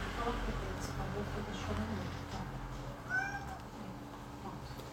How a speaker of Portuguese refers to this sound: É que estão os gatos chorando aqui, gente, mas, né? Eles também têm direito de comidinha, né?